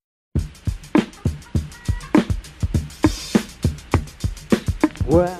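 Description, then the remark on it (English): The opening bit of a drum loop sampled from a funk record plays on its own: steady, punchy kick and snare hits with crisp cymbal accents, a brief tonal stab midway, and a swooping pitched sound closing the short loop. “it was just the first part of that that I uh, that I sampled, just the very first bit that sounds like this.”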